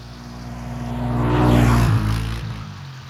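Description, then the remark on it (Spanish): A rented quad bike engine drones in Darién, its rumbling hum swelling to a peak around the middle and then easing off as it moves away. No one speaks. “luego a 10 minuticos, póngale 20 minuticos, en alguno de los cuatrimotos que hay en, en, en Darien, que los alquilan para esto”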